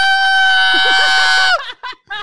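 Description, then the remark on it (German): A loud, sustained high-pitched scream held for about a second and a half, imitated by a voice in mock fright as of someone who puts their head underwater and sees a big fish two meters ahead, then breaking off into a couple of short gasping bursts. “Du machst deinen Kopf unter Wasser, siehst so einen großen Fisch zwei Meter vor dir und das Einzige, was Leute in einem zehn Meter Umkreis von dir hören, ist ah!”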